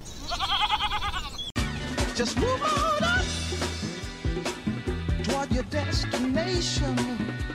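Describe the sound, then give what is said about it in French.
A goat's wavering, quavering bleat sounds loud for about a second and a half on a goat-cheese farm in Ardèche, France, then cuts off abruptly as steady music with sustained tones and a rhythmic pulse takes over. “maintenant installée en Ardèche où elle produit du fromage de chèvre.”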